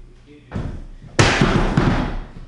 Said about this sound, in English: Knocking over chairs is what I do.